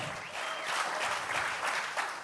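An audience applauds steadily, a dense wash of clapping hands holding a fairly even level for a couple of seconds with no voices standing out.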